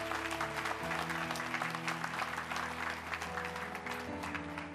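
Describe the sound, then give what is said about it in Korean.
A church audience in Southern California claps steadily throughout to encourage a newly appointed church department head on 3 January 2015, a dense, even wash of applause that holds for about five seconds, with sustained keyboard chords playing underneath. “한번 큰 박수로 격려해 주시기 바랍니다.”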